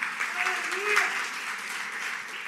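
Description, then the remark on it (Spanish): A church audience claps steadily for a couple of seconds, giving applause to the Lord, a dense, even wash of many hands, with some voices calling out and cheering over the applause. “Usted tiene que dar un aplauso fuerte al Señor, porque el Señor es el que lo tiene en su mano.”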